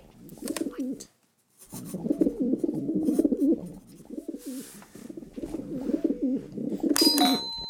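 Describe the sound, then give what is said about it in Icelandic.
Pigeons in a town square cooing in soft, repeated rolling phrases, steady with a brief pause near the start, and a faint metallic ring near the end. “Dúfur, hárétt sem vakka um á torginu, dúfurnar voru það vel gert.”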